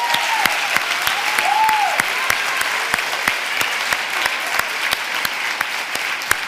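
An audience applauds steadily throughout in praise of God, a dense wash of clapping with sharp, rhythmic claps standing out on top, plus a couple of brief rising whoops or cheers early on.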